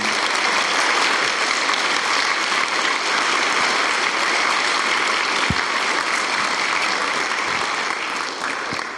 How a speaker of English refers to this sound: So why don't we just applaud them as a couple and a family?